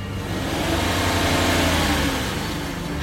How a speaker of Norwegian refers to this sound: At han kun ved å høre på bilene som kjører forbi, kan si nøyaktig hvilken modell og årgang kjøretøyet er.